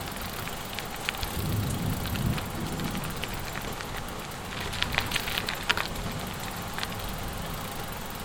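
Steady rain falls, a dense, even hiss of patter with occasional sharper drops standing out, over a low background rumble. No one speaks.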